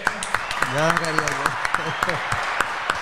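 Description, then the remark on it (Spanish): Scattered hand claps from a small group ring out in a steady rhythm, while a voice briefly laughs or calls out over them partway through. “Un aplauso para este cabrón.”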